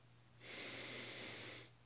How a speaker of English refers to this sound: Breathing in,